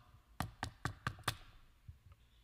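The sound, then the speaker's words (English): Five sharp knocks on a door in a quick, even sequence, fairly loud, followed by a brief quiet tail with no voices. “What does He end with? Knock.”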